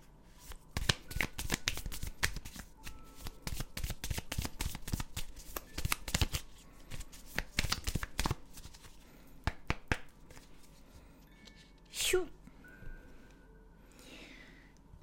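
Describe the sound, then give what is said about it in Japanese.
A deck of oracle cards being shuffled, a rapid flurry of crisp riffling clicks for several seconds that gradually slows and thins, with a brief soft swish near the end. “お初めてのカードが出たのでは ねえ今日のくまっちのカードはえ32番の、えー、組み合わせてみようっていうカードが出ました。”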